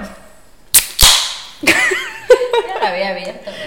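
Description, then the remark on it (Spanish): A diet soda can cracks open with a sharp metallic click, then a short fizzing hiss of escaping carbonation. Right after, voices talk and laugh over it. “Ah, pero es que yo no es que me gusta que, la audiencia escuche cuando abro esta. Sobre todo los de Spotify. Este refresco de dieta.”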